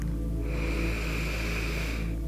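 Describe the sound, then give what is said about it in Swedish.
A long, steady breath drawn in through the mouth during a guided breathing exercise, airy with a faint whistling hiss, lasting about two seconds with no talking. “Och så andas vi in igen.”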